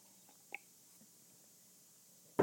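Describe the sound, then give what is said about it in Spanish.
A quiet sip of water: a faint wet click from the lips, a stretch of near silence, then a louder slurp or swallow at the very end. No one speaks. “perdón, voy a tomar un poquito de agua”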